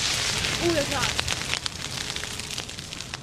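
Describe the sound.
A bonfire of branches that fell during a storm burns in September with a steady hiss and scattered sharp crackles and pops throughout, and a brief voice-like tone rising early on.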